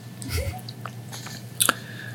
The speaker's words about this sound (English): The rabbit is now drinking water.